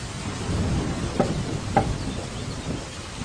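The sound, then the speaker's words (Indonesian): Two sharp knocks on window glass, then a fainter third, brittle against a steady wash of rain and rumbling storm noise. “aku tak bisa memikirkan suara lain yang lebih benci di dunia ini selain suara ketukan di kaca jendela itu.”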